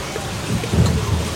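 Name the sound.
rain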